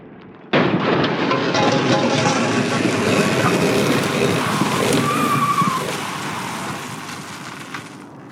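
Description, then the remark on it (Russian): A car crash in a road accident on a film screen bursts in abruptly and loud, the hood crumpling, bolts bending and a wheel flying off, followed by seconds of sustained crunching, grinding metal that gradually fades, with no voices present. “По слуху бьет громкий звук, и на экране происходит несчастный случай на дороге. Сминается капот, выгибаются болты, отлетает колесо.”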